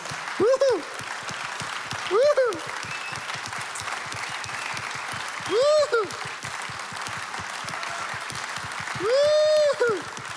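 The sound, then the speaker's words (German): Steady applause from a sizable audience in a church hall, given for the volunteers and helpers, dense and continuous, punctuated several times by drawn-out vocal whoops or cheers rising above the clapping. “Lasst uns den Menschen heute einen big Applaus geben.”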